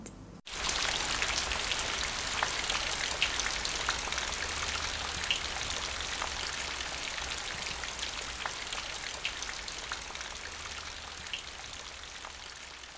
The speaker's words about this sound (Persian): بارون شدیدی شروع به باریدن کرد